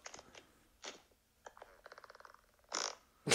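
Recorded fart sounds played back from a phone app: a few short blasts, then a rapid buzzy sputtering run, ending in two louder, harsher bursts. No one talks.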